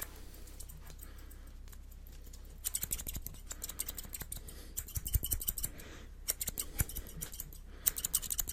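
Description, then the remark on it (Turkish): Crisp scissor snips in an ASMR video, starting sparse and then coming in quick irregular clusters of sharp metallic cuts over a quiet background hiss, with no talking. “Makas geldi.”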